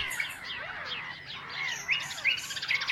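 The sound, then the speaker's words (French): A flock of sparrows chirps and twitters busily, with quick high calls overlapping continuously and growing a little louder and sharper toward the end. No one speaks. “Le silence a fait place au cocorico du coq, au caquettement du canard, chant harmonieux du rossignol, mais aussi au cri de la mouette et au piaillement des moineaux.”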